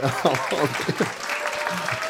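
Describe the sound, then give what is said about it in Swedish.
A dense, steady patter of audience applause runs through the whole moment, with a person talking over the clapping. “Får jag applåder för det där, då kommer jag inte ha några problem.”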